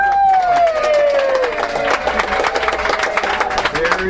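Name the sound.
round of applause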